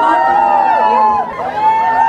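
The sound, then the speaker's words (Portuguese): A crowd shouts and yells all at once as everyone tries to appear in a group photo: a loud, continuous wall of overlapping voices with rising and falling cries, dipping briefly before swelling again. “Todo mundo querendo aparecer nas fotos aqui, essa gritaria é por causa da foto.”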